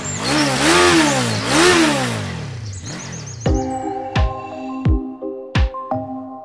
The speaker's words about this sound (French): Et le crâneur d'enfourcher sa monture et de faire rugir le moteur, à défaut de pouvoir hurler sa frustration.